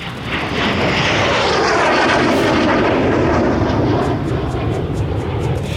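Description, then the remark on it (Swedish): A loud, roaring airplane engine sweeps in overhead, only a few tens of meters above, its pitch sliding as it dives, with a dense rumbling wash of noise filling the whole clip. “Precis när flyget dyker ner i ett undrande snatter av kanoner och explosioner som lyckligtvis slår ner precis bakom huset.”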